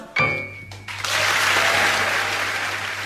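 A crowd bursts into sustained applause after a brief musical note fades, the clapping dense and steady, filling the space from about one second onward.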